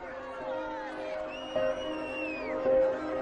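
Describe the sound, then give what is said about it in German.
A large crowd of spectators in Donetsk on 24 August shouts and jeers at Ukrainian prisoners of war paraded by separatists, calling them criminals, in a dense, continuous roar of overlapping voices, with a few sharper cries and a high whistle-like tone rising above the din. “Genugtuung bei den Zuschauern. Ihr Verbrecher, rufen sie.”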